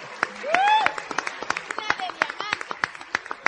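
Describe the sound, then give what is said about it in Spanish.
An audience in Colombia bursts into applause for a group of leaders, dense irregular claps running steadily throughout, with a rising vocal whoop or cheer briefly rising above the clapping early on. “Un fuerte, fuerte aplauso para estos grandes líderes que los tienen aquí en Colombia.”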